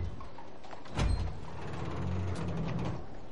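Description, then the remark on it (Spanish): A heavy armored door of a building opens just after a small hatch window in it is closed: a solid metallic clunk, then a low, drawn-out grinding creak as it swings, with no voices. “Lo cierra y abre la puerta.”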